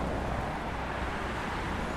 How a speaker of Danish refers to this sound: Så kommer der lige over en lastbil her. Hold da kæft.